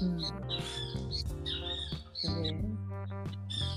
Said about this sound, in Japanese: なんか鳥の声